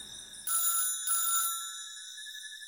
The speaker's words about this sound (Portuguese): passa na frente de um apartamento, outro apartamento. O telefone também toca. E alguém atende também. Ele para de tocar.